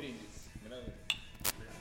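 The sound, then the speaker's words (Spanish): A single bright, ringing clink of glasses in a toast rises briefly over people talking, followed moments later by a short, noisy clatter. “Escuchen el brindis, o sea, ya, la primera pregunta tiene un, brindis, ya está.”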